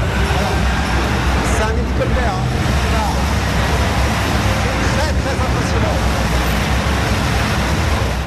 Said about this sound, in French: Et alors attention parce que là ça va démarrer justement euh, cette soufflerie là et vous allez l'entendre c'est un bruit assez incroyable.